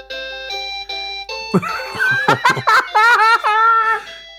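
A battery toy with an ABC button plays the ABC song as a tinny electronic melody of evenly spaced notes, then a bright, warbling recorded voice sings along, loud, with a few sharp clicks. Its batteries are somewhat run down.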